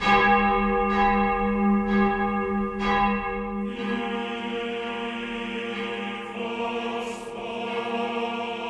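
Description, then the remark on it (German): A large church bell tolls with deep, rich resonance, its strikes repeating roughly once a second before merging into a sustained, shimmering hum of overlapping overtones. “Die große Blasius Major erklingt übrigens vor allem am Karfreitag, dem Todestag Jesu”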